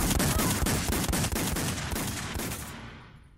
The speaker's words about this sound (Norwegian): Deretter sendte han mennene ut av rommet, før han avfyrte rundt 30 skudd mot de gjenværende ni kvinnene.